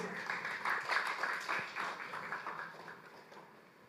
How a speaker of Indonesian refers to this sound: Sorak-sore buat Tuhan Yesus.